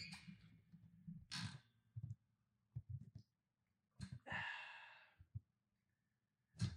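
Airy slurps of someone sipping hot coffee, two or three quick draws and a longer hissing sip, separated by soft breaths and quiet pauses.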